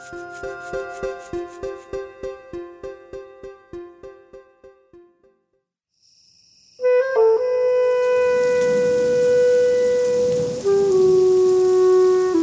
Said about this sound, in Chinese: 哇，姐姐快看，真的下雨了！